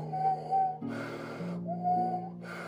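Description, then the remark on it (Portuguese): A voice imitates the mechanical respirator breathing of Anakin in his armored suit from Star Wars: slow, rasping inhales and exhales with a hollow, whistling hiss, about two full cycles, steady with no talking. “Foi, eu realmente, toda vez que aparecia só a respiração,”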